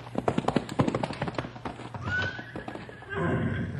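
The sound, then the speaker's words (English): A horse, just unpacked and being turned into a corral, whinnies with a rising then falling neigh while hooves clip-clop in a quick, uneven rhythm, the clopping starting first and continuing under the call. “Storm says thanks for taking the pack off his back.”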